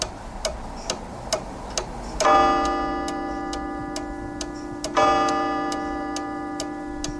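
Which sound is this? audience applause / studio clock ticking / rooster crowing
studio clock ticking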